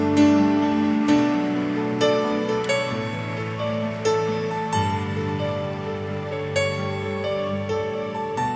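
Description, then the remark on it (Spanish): An audience claps for the Lord in a morning worship service, a steady, dense, continuous patter while sustained keyboard chords ring underneath, the applause lasting throughout without any voices standing out. “Dale un aplauso al Señor esta mañana.”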